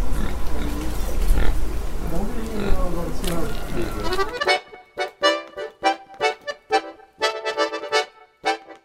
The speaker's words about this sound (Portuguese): Mas lá tem tanto porco pela rua que uma paulistana como eu chegou a achar que eram cachorros.